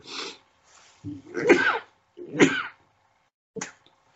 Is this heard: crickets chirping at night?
no